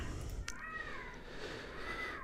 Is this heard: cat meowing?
yes